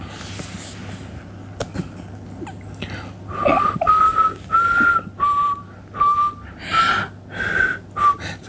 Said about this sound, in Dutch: Beter dan dat kan ik niet fluiten. Maar toch, ik hoor wel een melodie. Ik herken zelfs de song.